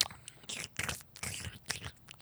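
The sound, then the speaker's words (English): A sound effect of intense tongue kissing: wet, squelchy sucking and smacking noises, like someone slurping a juicy peach, repeating in irregular bursts with moist clicks and smacks between them, no talking over it. “Like Yep, that's what tongue sounds like. ASMR for you. And Some peach sucking.”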